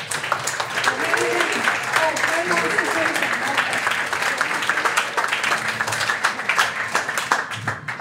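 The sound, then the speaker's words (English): Sustained audience applause at an AGM, a dense steady wash of many hands clapping at an even loudness for several seconds for a man's courage, with scattered crowd voices and cheers mixed in beneath. “And I'm not going to say too much, but I wanted to give a round of applause for his courage and his.”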